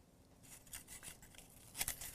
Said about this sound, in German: Ich habe ich behalte den Zettel trotzdem in der Hand, aber ich raschel jetzt einfach.